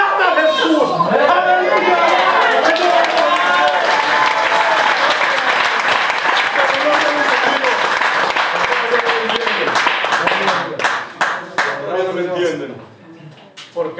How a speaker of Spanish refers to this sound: futbolista o al actor, inclusive equivocadamente al predicador, le damos el aplauso así cuando nos cansamos.